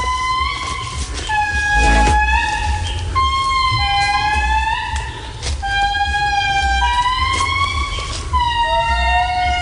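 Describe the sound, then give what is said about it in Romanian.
Lemurs in Madagascar calling in loud, eerie wails, several voices overlapping in long sliding, siren-like tones that rise and fall almost without pause over a low background rumble. “Lemuri în Madagascar.”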